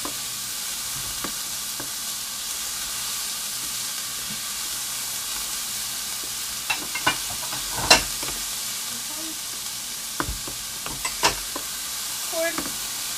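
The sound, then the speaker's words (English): Bell peppers and onions fry in a pan with a steady, even sizzle, broken by a scattering of sharp clicks and scrapes from stirring in the second half. No one speaks. “Okay, bell peppers are poured, and onions are poured.”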